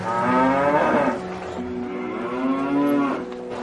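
A cow moos loudly, two long, drawn-out lowing calls one after the other, with no voices alongside.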